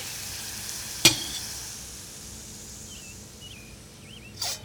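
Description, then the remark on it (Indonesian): Steady sizzling of Indonesian fried rice (nasi goreng) being cooked in a hot pan in the morning, with two sharp scraping clinks of a spatula stirring, one early and one near the end, and faint bird chirps in the background. “Pagi sayangku, mau nasi goreng?”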